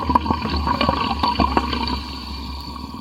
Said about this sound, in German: Der Effekt ist schon ziemlich nice. Man hört das Wasser sprudeln. Ich glaube, genau. ich habe noch nie Wasser sprudeln gehört, zumindest nicht so in dieser Intensität.